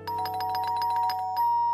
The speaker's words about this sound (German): Die Türklingel der Knebs unterbricht einen entspannten Abend.